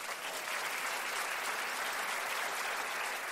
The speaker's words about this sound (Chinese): 我们给他一个掌声好不好？